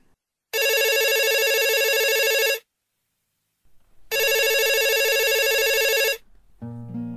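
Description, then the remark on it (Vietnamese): Two long ringback tones of a telephone call being placed by the VOV Giao thông radio station to the owner of a chicken rice shop in Saigon, each about two seconds with a pause between, loud, followed by a brief burst of music at the end. “Quy định cuối cùng gọi cho anh từ VOV Giao thông để cùng lắng nghe sâu hơn về câu chuyện của anh chàng và quán cơm thú vị này và cả tư duy bình thường mới rất đỗi dễ thương của Sài Gòn.”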